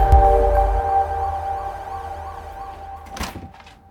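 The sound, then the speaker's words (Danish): A heavy thunk, then a steady electric motor whine as a warning board on a vehicle is raised by remote control operated from inside the vehicle, holding a humming tone and gradually fading, with a sharp click near the end. No one speaks. “Det er vores øh, fjernbetjening til at kunne øh, køre tavlen op.”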